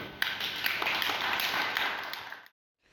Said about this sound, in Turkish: Bir hep beraber birbirimizi alkışlayalım.